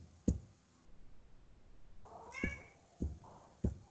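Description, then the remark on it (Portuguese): A female cat meows once with a rising, tonal cry in the middle, surrounded by a few sharp thumps or knocks, with no talking. “Espero ouvir no meado, gente, da minha gatinha, viu?”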